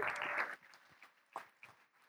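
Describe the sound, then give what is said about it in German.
A short burst of dense audience applause, welcoming two people onto the stage, cuts off after about half a second, leaving a few scattered, isolated claps before it fades to quiet. “Und ihr dürft sie mal mit einem ganz großen Applaus begrüßen.”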